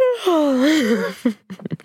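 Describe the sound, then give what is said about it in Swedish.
A person gives a long, drawn-out yawn, a breathy voiced tone sliding downward for about a second, before a few quick syllables of speech follow. “Alltså, nu vill jag också gäspa.”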